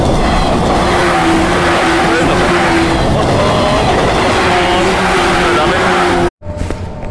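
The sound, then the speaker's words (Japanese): A train roars past at a railroad crossing, a loud, steady wash of rumbling and rushing noise with faint droning tones, cutting off abruptly near the end before quieter background sound returns. “あ、電車来たからいたと思います。”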